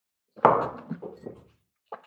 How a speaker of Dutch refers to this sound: En ik neem ondertussen even een slokje water.